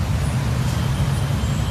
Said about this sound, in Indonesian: Ya Allah, macet banget nih.